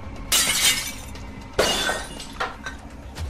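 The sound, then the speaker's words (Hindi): A mirror is smashed: glass shatters with a bright, crashing burst, then a second sharp smash follows, leaving tinkling fragments and a fainter clink trailing off. No one speaks. “सूरज ने दर्पण को तोड़ दिया”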